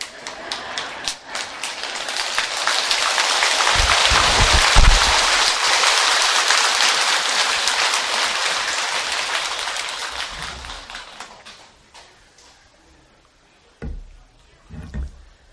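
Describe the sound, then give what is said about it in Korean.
A crowd at a Buddhist Dharma talk, who have raised their hands, applauds in a dense, steady wash of clapping that swells and holds for about ten seconds, then thins out, leaving a few scattered claps and faint low thumps. “여러분이 손을 다 드셨고 박수를 치신 그 뜻을 산성은 영원히 잊지 않겠습니다.”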